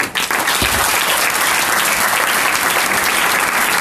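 Sustained applause from an audience, a dense, steady wash of many hands clapping at an even loudness for several seconds, with no voices standing out.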